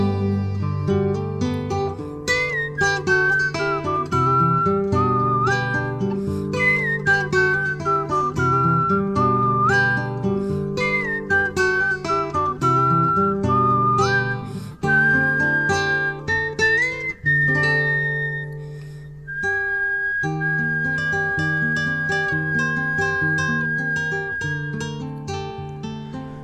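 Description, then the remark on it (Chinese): A clear whistled melody rises and falls steadily over a full instrumental backing of bass and chords, carrying a bright, lively tune for nearly half a minute with no talking. “如果你问我这世界上最快乐的乐器是什么，我会告诉你，可能是口哨。”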